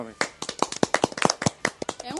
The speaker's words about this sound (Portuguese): Acho que palmas, palmas. Gente, Não, palmas